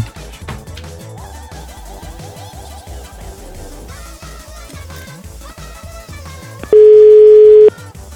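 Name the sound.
telephone ringback tone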